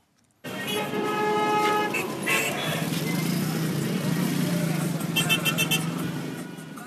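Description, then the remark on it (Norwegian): Dense, noisy city traffic in Cairo, Egypt, moves slowly along the Nile in three to five lanes, rumbling steadily while car horns honk repeatedly, some long and sustained, others in quick short bursts, with a faint murmur of voices in the background. “Kairo-trafikken beveger seg sakte og bråkete langs Nilen.”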